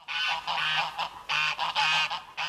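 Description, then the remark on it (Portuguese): Ducks and chickens raised at a family house in Esmoriz call in a steady run of loud, harsh honking and quacking cries in quick overlapping bursts, with no voices. “Aqui criam-se aves, patos e galinhas”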